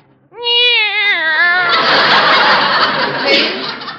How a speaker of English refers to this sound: I'm sure she recognizes her name. Oh, that's ridiculous. Listen, Minerva. Hi, Minerva. Meow.